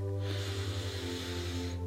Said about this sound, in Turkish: Şimdi kocaman büyük bir nefes alıyoruz